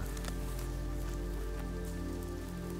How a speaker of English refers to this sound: As you approach the house, your house, the rain begins to fall slightly faster. And you can also hear the faint rumble of thunder rolling in from the ocean.